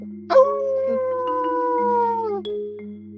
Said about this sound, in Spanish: la misma foto en donde ven a lo lejos un lobo que está aullando, es un lobo. Tiene que aullar. Tienes que aullar.